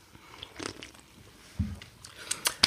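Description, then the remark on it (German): Crunching on spiced snack chips from Edeka: several sharp, crackly bites with chewing in between, the crunches growing louder and denser toward the end, with no talking over them. “die esse ich mit einem Kumpel immer.”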